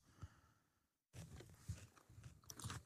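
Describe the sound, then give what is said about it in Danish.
Crunchy biting into a carrot followed by steady chewing, with moist, crackling mouth sounds repeating irregularly for a couple of seconds after a brief pause. No one speaks. “Altså, det er en guldråd, du sidder og spiser.”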